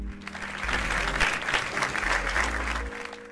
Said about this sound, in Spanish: Ya, ya, ya, no muchos aplausos tampoco.